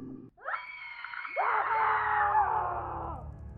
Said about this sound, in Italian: Succede qualcosa. La musica si interrompe, la gente urla.